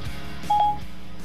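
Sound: mobile phone dialing tones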